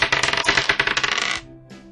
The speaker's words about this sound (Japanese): 十かなじゃあ、十面ダイス3つ振らせていただきます。